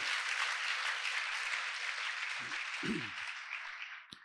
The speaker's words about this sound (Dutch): Dus ik wilde gewoon vragen, weet je, om hen gewoon een geweldig applaus te geven voor het werk wat ze doen.